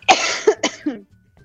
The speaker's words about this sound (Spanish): Antes que nada, bueno, pues disculparnos porque vamos a estar aquí a tose y tose y tose